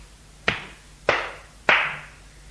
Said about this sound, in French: Il la gifle.